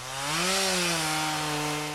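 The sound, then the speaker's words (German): A chainsaw runs loud for a couple of seconds, cutting a large block of lake or fjord ice in Norway for ice carving, its engine whine rising briefly then holding steady over a harsh, gritty cutting hiss. No voices. “Ohne Kettensägen, Stecheisen, Hobel und Bunsenbrennern läuft dabei nichts.”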